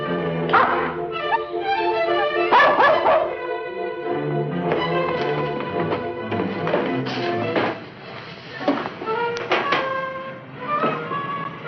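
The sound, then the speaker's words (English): A dog barks and yips insistently, a rapid run of sharp, excited calls with brief whining tones between them, continuing almost without pause. “said something about his dog needing him.”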